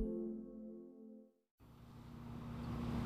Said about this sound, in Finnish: Työn äänet ja hiukan kauempaa myös liikenteen äänet Kalevankankaan hautausmaalla.